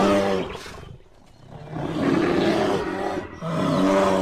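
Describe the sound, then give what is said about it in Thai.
A large bear in a forest roars deeply and loudly, two long growling roars separated by a brief dip, with no voices present. “เนื่องจากในป่านั้นมีหมีตัวใหญ่ ชอบกินน้ำผึ้ง หากว่าหมีนั้นมาเจอน้ำผึ้งแล้ว จะต้องกินแจ็คไปด้วยแน่”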